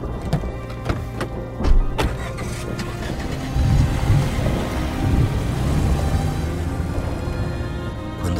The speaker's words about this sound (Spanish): se desató la tormenta. Los relámpagos iluminaron toda el área. Por momentos, con los estallidos de los truenos, parecía que el cielo se incendiaba en llamas.